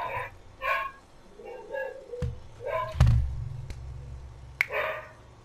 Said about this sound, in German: Lotti bellt?